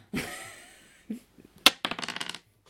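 Dice rattle in a cup or hand, then land with a sharp clack and a quick burst of tumbling clicks across a hard surface. Close up, with no voices.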